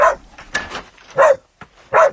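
rescue dog barking

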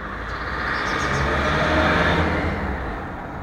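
busy city street traffic

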